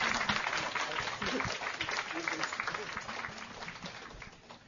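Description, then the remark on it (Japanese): Steady applause from an audience thanking a lecturer after her talk fills the whole moment, a dense patter of many hands clapping, with voices murmuring underneath as it gradually tapers off toward the end. “どうも先生ありがとうございました大きな拍手でどうぞありがとうございます”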